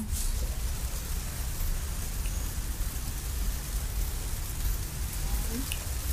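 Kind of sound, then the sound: nature, rain falling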